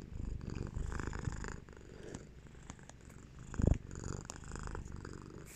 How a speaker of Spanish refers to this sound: Frey les manda un ronroneo. A ver si se oye.